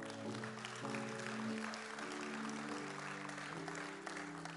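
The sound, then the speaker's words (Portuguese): An audience claps steadily together for several seconds in praise of the Lord, a dense wash of applause filling the room while sustained organ or keyboard chords hold underneath. “Então, dá um glória a Deus aí e aplaude ao Senhor.”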